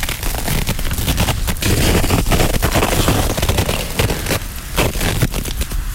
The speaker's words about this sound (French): Je ne sais pas si vous le savez, mais la glace fait un drôle de bruit lorsqu'elle se forme. Un bruit très intéressant en fait. Et très faible.